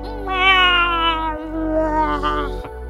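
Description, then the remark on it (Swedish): A hedgehog screams: a loud, drawn-out, high-pitched wail with a shrill, cat-like quality, broken by a brief pause into two long cries, with no talking. “Några beskrivningar nämner även ett udda skrik som läte”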